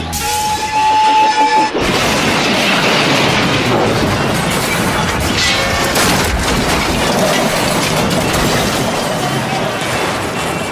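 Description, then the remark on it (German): A short, steady train whistle gives way to a loud, sustained roar and rattling clatter of old, retired locomotives bearing down on each other in a staged train collision, the Duel of the Locomotives, continuous for several seconds, with no voices. “Duell der Lokomotiven heißt dieser künstliche Eisenbahnzusammenstoß.”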